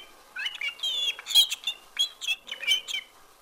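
A canary chirps in a rapid, continuous run of bright, high trills and tweets, close and fairly loud, with no other sounds around it.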